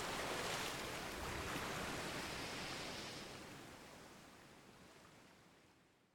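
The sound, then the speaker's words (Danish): A steady wash of rising sea water rolls slowly further up a beach in broad, hissing noise, loud at first and then gradually receding and fading over several seconds. No voices are present. “Vandet flød lige så stille længere og længere op ad stranden”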